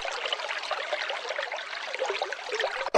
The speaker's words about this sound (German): Hier ist es ein bisschen ruhiger, geht es zu. Das könnte jetzt das Geplätscher sein, das ich mir bei unserem Irgendwasser vorstelle, wie er mal irgendwann angefangen hat zu plätschern.